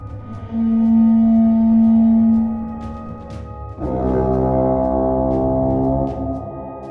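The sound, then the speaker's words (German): Deep war horns blow in two long, loud sustained blasts; the second is fuller and layered, as if several horns sound together. No voices are present. “Und dann hört ihr erst einige ziemlich tiefe Hörner.”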